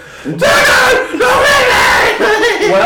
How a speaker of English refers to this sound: We'll just have to scream together.